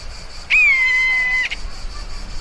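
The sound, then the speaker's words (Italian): A buzzard, a large dark bird slowly circling overhead, gives a single drawn-out, high whistled cry lasting about a second and sliding slightly downward, clear and fairly loud over a quiet outdoor background. “Si sente un lamento insistente nell'aria. E Manu solleva lo sguardo. C'è un rapace lassù.”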